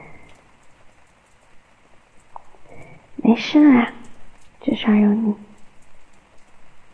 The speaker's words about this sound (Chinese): 对了，这个雨声是我一个朋友录的，很妙吧？我超级喜欢的，希望你也能喜欢。